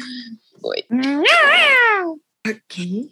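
The speaker's female pet cats fighting: one long, loud, wavering yowl rises and falls, with short clipped cries before and after it.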